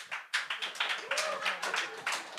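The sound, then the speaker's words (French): A burst of audience applause from fans of Dungeons & Dragons (Donjons et Dragons): many hands clapping at once in a steady, crackling patter, with a faint voice calling out partway through. “par applaudissement, est-ce qu'il y a d'autres fans de Donjons et Dragons dans la salle?”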